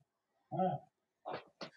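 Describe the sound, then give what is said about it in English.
A small Yorkie dog named Gabby chokes and snorts: one honking, strained gasp followed by two short, rough snorts in quick succession, with quiet pauses between. “He chokes a lot.”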